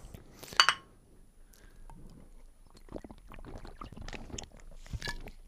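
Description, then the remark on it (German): Glasses clink together in a toast to Stefan, a bright, sharp ring near the start, followed by several seconds of soft clatter and rustling. No one speaks. “Lass uns auch noch ein letztes Mal auf Stefan anstoßen.”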